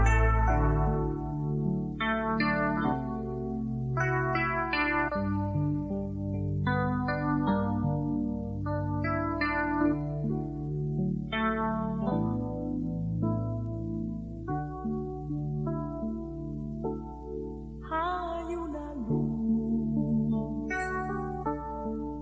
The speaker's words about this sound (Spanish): Escuchamos la canción y estamos de vuelta en poquitos minutos.